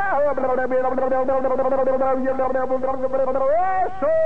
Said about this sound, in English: Give me just the slightest echo chamber. Here we go.